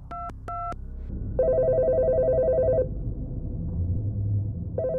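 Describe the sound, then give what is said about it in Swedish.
Two quick keypad tones as a phone number is dialed on a mobile phone, then a steady electronic ringing tone that pauses and starts again, heard over a low background rumble. “Jag slog hennes nummer.”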